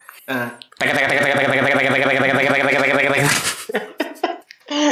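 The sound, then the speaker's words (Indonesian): A voice imitates a Honda Supra motorcycle engine with the mouth in a guess-the-motorcycle game, a sustained buzzing, warbling drone lasting about two and a half seconds, loud, framed by brief vocal sounds before and after. “geng motor mah kan kenal potnya sama semua kan ini ini ini suara motornya manual dari mulut kita dong”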